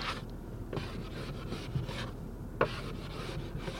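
Repeated rough scraping strokes, like ice being scraped off a car windshield, rasping in an uneven rhythm at close range with no talking.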